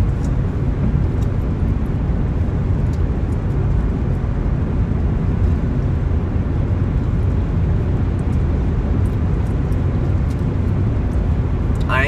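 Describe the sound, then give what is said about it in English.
A steady, loud low rumble of a car driving along a road with the traffic, going slightly over the speed limit, heard from inside the vehicle, with constant engine and tire noise filling the whole stretch without pause. “I'm not speeding any more than anybody else is around here. I'm going with traffic, so.”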